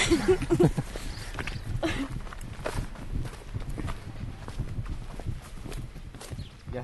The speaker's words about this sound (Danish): Hestene.